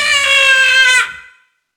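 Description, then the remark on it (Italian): A single loud, sustained baby's wail, steady and shrill for about a second, then cut off and fading into a short echoing tail. No one speaks. “Ascoltate il bambino. Non ha mai pianto.”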